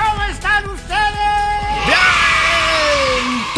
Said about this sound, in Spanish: los críos ahí gritando